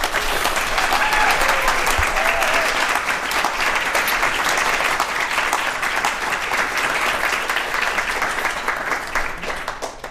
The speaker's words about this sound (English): Let's clap for Warda really quick